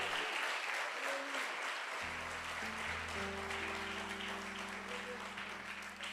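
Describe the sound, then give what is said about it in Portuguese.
An audience claps steadily and loudly for Jesus for several seconds as a sustained keyboard or organ chord swells in underneath the applause about two seconds in. “Use as suas mãos para aplaudir a Jesus.”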